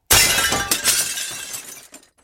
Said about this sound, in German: Einen Moment lang hielt das dicke Glas noch stand. Doch dann explodierte der Bildschirm plötzlich in viele tausend Splitter, die quer durch mein Wohnzimmer flogen.